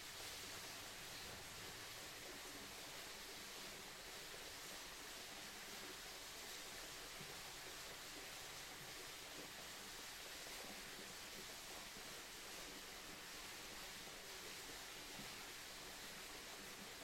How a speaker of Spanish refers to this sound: Mientras sigues inmerso en el sonido de la quebrada, lleva tu atención al origen del agua misma, a su ciclo eterno, a su conexión con la naturaleza y a su conexión con nosotros mismos, contigo mismo.